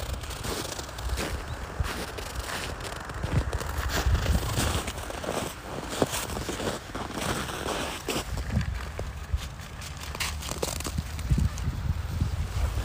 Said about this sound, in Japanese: 階段を降りて河川敷に降りてきましたね静かですね土曜日の朝ねとても静かです雪の上を歩く音と川の流れの音